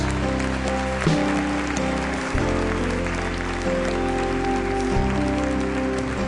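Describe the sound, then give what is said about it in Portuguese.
A church audience applauds in praise of God in a steady, dense wash of clapping, running under sustained keyboard chords that shift every second or so. No one speaks. “Em nome de Jesus e todo o povo do Senhor, por alegria, aplauda Ele pelo que Ele fez na vida deles.”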